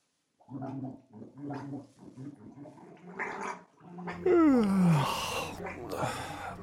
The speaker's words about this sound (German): geprustet, gespuckt, gesprotzt und geblubbert, was das Zeug nur hergab